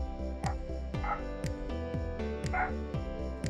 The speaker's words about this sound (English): If you leave a question, oh shit, hold on, dog's barking.